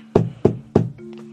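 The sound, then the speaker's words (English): Three firm knocks on a wooden door in a steady rhythm, fairly loud, followed by a faint lingering tone as the knocking stops; a knock at a family's door while they watch the movie Happy Death Day to You. “When the Revicki family was watching Happy Death Day to You, they heard a knock on the door.”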